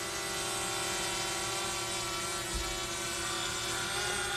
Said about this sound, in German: Sven Schmidt macht die Elektra One Solar startklar. Auch das Wetter spielt mit. Die Gewitter haben sich verzogen, die Wolken haben sich aufgelöst. Nur von einem Elektromotor angetrieben, nimmt das Flugzeug Fahrt auf.